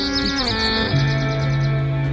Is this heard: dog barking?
no